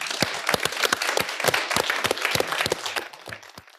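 An evening audience in Rotterdam applauds steadily as a speaker is invited to give a ten-minute lecture, many hands clapping in a dense, crackling patter with some louder individual claps standing out, then tapering off toward the end. No one speaks.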